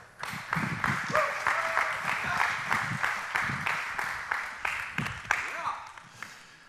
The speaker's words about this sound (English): Um, I take it by that clap. It was kind of mediocre.